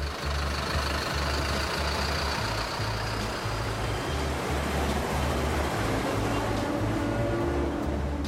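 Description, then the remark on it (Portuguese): A heavy bus engine idles with a steady, throbbing low rumble, surrounded by a constant wash of city traffic noise and no voices, in the city of João Pessoa. “Hoje em Garo vivo, fone, carregador jovem, película, chip ou o barulho dos ônibus, carros, trens.”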